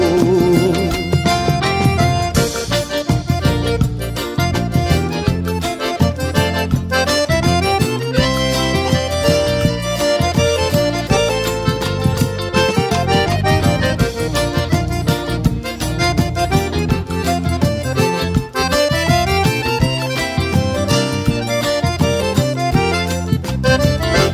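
A forró trio song with singing plays loud and continuous throughout, its dense melodic instruments riding over a steady, driving rhythmic pulse with no pauses.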